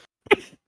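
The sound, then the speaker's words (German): A single sneeze bursts out sharply, a quick breathy intake followed by an explosive, hissing blast that fades within a fraction of a second. No talking accompanies it. “Ja, ich habe genießt, sorry.”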